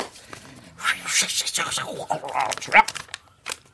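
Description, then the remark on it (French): A second slip of paper is drawn and unfolded, giving a few seconds of dry crinkling and rustling bursts, with a voice murmuring faintly underneath. “On prend un deuxième papier,”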